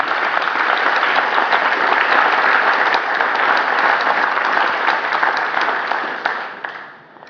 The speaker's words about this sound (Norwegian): Så jeg vil si tusen takk til dere, og vi gir dem på en nytt en god klapp